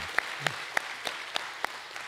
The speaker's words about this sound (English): I think we ought to just clap and say happy birthday to her.